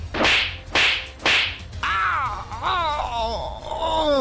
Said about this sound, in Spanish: este güey está como loco, se quedó pegado. Déjale unas cachetadas para que se despegue.